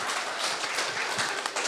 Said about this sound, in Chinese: 掌声，掌声，掌声！哇，这个绝对大家要有掌声和欢呼啊！